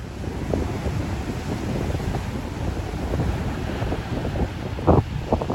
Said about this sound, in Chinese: 这是冬天里花莲海边的声音，从这个声音你大概也可以听得出来，风很大。